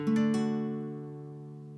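A D major chord strummed once on an acoustic guitar from the fourth string down, leaving the fifth and sixth strings unplayed. The strings strike in a quick ripple and then ring out, slowly fading, with no voices.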